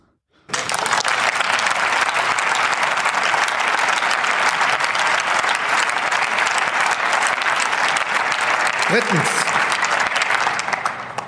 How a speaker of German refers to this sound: Dafür gibt es Applaus von den Koalitionskollegen.